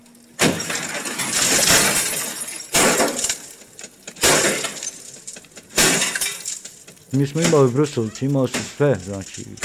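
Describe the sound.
Heavy axe blows smash into an old car, each loud crash followed by shattering glass and rattling metal debris, repeated four times at irregular intervals, with a voice speaking briefly at the end.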